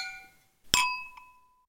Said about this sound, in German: Nur damit ihr euch das alle immer bildlich vorstellen könnt, wir haben jeweils immer zwei Weingläser, damit sich das schön anhört. Zum Anstoßen. Achso, ich habe ein Wasserglas und ein Weinglas.